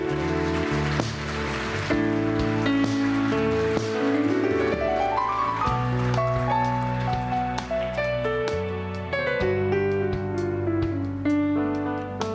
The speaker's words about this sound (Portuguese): no seu lugar, com muita fé, aplaudindo ao nome do Senhor.